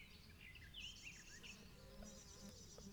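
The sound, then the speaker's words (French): A bee passes by a pond surrounded by red and blue flowers, buzzing with a steady, low drone for several seconds while birds chirp and twitter faintly in the background outdoors. “Une grenouille coasse, une goutte d'eau qui tombe dans la mare, une abeille qui passe par là.”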